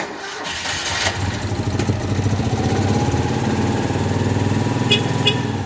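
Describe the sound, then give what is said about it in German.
The small two-cylinder engine of a Citroën 2CV, a French small car, cranks briefly, catches, and settles into a steady, rattly idle, fairly loud with a lumpy, pulsing rhythm. “ein französischer Kleinwagen der besonderen Art. Vor 75 Jahren kam der Citroën 2CV de Chevet, wie der Franzose sagt, auf den Markt.”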